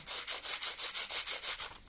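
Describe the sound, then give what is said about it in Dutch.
Two crackers rubbed back and forth against each other, making a dry, hissy scraping that mimics a saw, with about eight steady strokes in quick rhythm and no talking. “kun je gewoon twee crackers op elkaar doen en heen en weer bewegen.”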